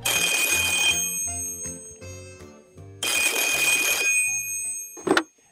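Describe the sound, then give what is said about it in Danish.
A telephone rings twice with another caller to a radio joke line, loud, jangling bursts about three seconds apart, with a low musical tone pulsing underneath, followed by a sharp click as if the receiver is picked up. “Så for Søren, der er endnu en, der ringer.”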